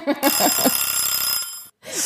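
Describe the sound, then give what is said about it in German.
An alarm clock rings loudly in one continuous, shrill burst lasting over a second, briefly overlapping a voice at the start; after a short gap, talking resumes. “da war jetzt der Wecker auch?”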